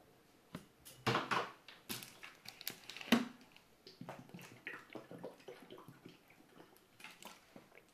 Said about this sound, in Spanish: Discúlpenme, voy a beber agua un momento.